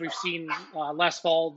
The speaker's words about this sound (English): Uh, that's my dog Logan barking, by the way.